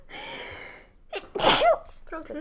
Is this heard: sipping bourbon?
no